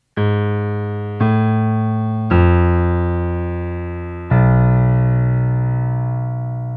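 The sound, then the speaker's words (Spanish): Four sustained, loud instrumental notes of a film's velociraptor theme play one after another with no voices, each slowly decaying, forming a dissonant melodic line built on a minor second and an augmented fourth; the final note rings longest. “Escucha una última vez estas cuatro notas del tema de los velociraptors.”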